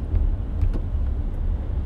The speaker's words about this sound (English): I'm like, okay, it's a lot of traffic.